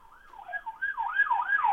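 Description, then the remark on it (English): A police car siren wails in quick rising and falling sweeps, a fast yelping cycle that grows steadily louder over a couple of seconds, with no voices over it, during a police chase outside a house. “A police chase.”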